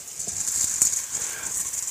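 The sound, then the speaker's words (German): Small, bone-dry dried chickpeas rattle and patter in a steady, continuous shaking, a bright crisp rustling hiss with small clicking impacts throughout, moderately loud, with no voices. “Die müssen erstmal, und die sind relativ klein und wie man schon hört, furztrocken.”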